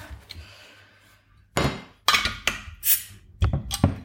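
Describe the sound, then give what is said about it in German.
Several sharp glassy clinks and knocks of beer bottles tapped together in a toast come in a quick irregular cluster after a quiet start, fairly loud. “Zum Wohl. Prost.”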